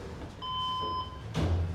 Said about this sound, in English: We have to be buzzed into the Rio Doce office.